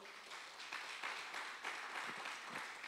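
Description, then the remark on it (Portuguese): A crowd applauds for the Lord, a dense, steady wash of many hands clapping for about three seconds at a fairly soft, even level, with no voices standing out. “Dá um aplauso ao Senhor, então.”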